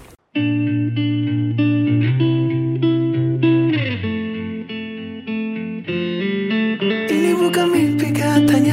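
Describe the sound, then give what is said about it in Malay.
An instrumental song intro starts after a brief silence, with sustained, effect-heavy chords shifting every second or so, then brighter crashing cymbals joining near the end. Loud, with no voices. “Kita dengarkan yeah. lagu”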